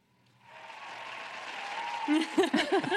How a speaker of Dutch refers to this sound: je krijgt gewoon een applaus van mij.